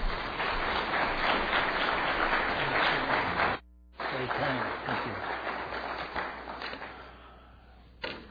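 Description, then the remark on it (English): A crowd claps steadily and loudly for several seconds to welcome a speaker, with a brief drop in the middle, then the applause thins and fades out toward the end. “And let's give our brother a warm welcome.”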